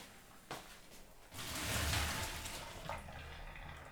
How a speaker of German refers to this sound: Dann einfach abgießen, also am besten in ja. so ein Sieb oder sowas und ähm, dann einfach mit ein bisschen äh, kaltem Wasser einfach noch so über. Abrausen? Genau, übergießen so ein bisschen, genau.